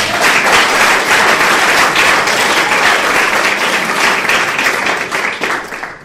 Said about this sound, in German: Ja, ihr könnt mal klatschen, ne?